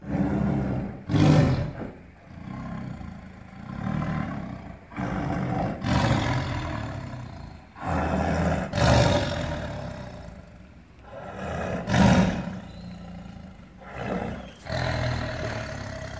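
Tigers roar again and again, deep rumbling growls swelling and fading in loud bursts with brief gaps between them, several big cats calling with no talking.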